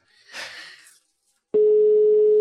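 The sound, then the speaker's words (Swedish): A brief burst of rustling noise, a short pause, then a loud, steady telephone tone starts abruptly and holds unbroken to the end, like a busy signal on a phone call to a man who cannot be reached. “Vad tror du han gör en sån här dag när, han, när det inte går att få tag i honom?”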